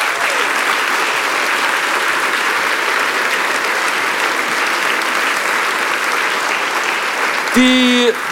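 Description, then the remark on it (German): Steady, dense applause from a studio audience, many hands clapping at an even, loud level for several seconds, with a brief tonal sound cutting in just before it ends. “Ich wollte wollt Ihren Applaus nicht unterbrechen.”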